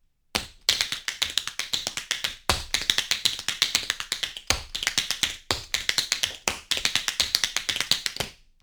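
Tap dancing shoes clatter in a fast, steady stream of crisp metallic clicks for about eight seconds, with heavier accented stomps every second or so. No one speaks.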